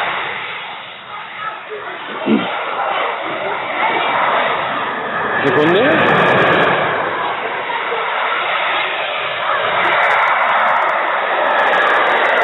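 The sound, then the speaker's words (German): A loud passing train roars, a dense, steady rumble filling the whole stretch without easing, while a voice briefly speaks over it. “Moment, lauter Zug.”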